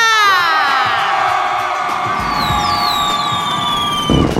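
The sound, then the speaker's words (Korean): A loud crowd cheers and shouts continuously, many high voices screaming together in a dense, sustained roar that swells again near the end, with no speech over it, answering a host's call to scream again during a dance-song medley on KBS radio's Funky Saturday dance party. “다시 한번 소리 질러!”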